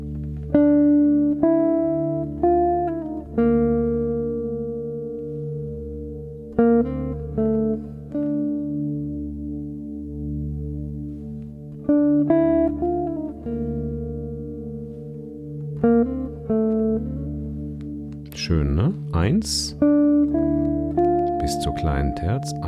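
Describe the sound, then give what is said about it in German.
A sustained drone underpins a slow melodic line of held, gliding tones in raga Darbari Kanada (Aeolian mode), phrased in several short repeated arcs: a minor third, a leap down to the minor sixth, then the minor seventh and the fifth, with a swooping, bending passage near the end; no one speaks. “1, 2 kleine Terz. Dann der Sprung auf die kleine 6 nach unten, ganz wichtig. 7, kleine 7, Quinte.”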